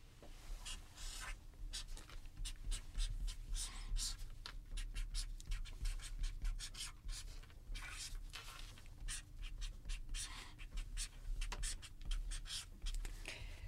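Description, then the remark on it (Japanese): A pen scratches steadily across a stiff shikishi board as someone writes their dream for five years ahead, with a continuous run of short strokes and brief pauses, fairly quiet, with no talking. “そちらの、はい、色紙に5年後の夢を書いていただけるでしょうか”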